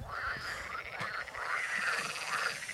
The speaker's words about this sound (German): Das ist ein Froschtümpel, das ist ein reiner Froschtümpel.